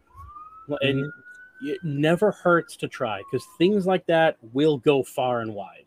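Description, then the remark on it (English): An emergency siren wails faintly in the background, a thin rising tone running beneath conversation as people talk over it. “I don't know if you guys can hear the sirens in the background”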